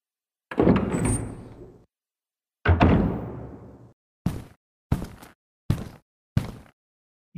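A door opens as someone enters a police superintendent's room: two drawn-out, resonant rumbles, followed by four short, sharp thuds in an even rhythm. The sounds are fairly loud, with no voices.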